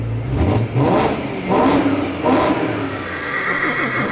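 A horse whinnies loudly while a fast sports car engine revs hard alongside it, the two sounds overlapping in repeated surges over a few seconds, with no talking.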